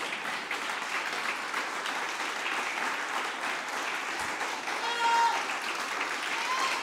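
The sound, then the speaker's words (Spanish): Sustained applause from an audience, a dense steady wash of many hands clapping that holds level for several seconds and swells slightly near the end, with faint voices mixed in. “Pero ese aplauso yo creo que ni no lo dio nadie.”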